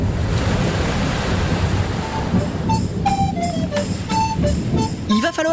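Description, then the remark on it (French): Atlantic Ocean waves wash in a steady roar while wind rushes over the microphone, with a few thin, high cries rising above the surf in the second half. The setting is wind-beaten salt marshes on the Atlantic coast at La Rochelle, France. “Non, pour l'heure, il y a simplement des marécages, des marais salants battus par les vents et par les caprices de l'Atlantique.”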